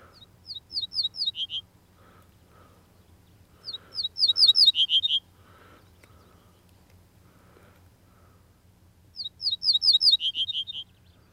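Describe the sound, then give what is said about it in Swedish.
An ortolan bunting sings three short, simple phrases, each a quick run of clear repeated notes ending in lower, softer tones, distinct against a quiet background with a low steady hum. “Ortolansparven räknar till fyra och så räknar den ner igen.”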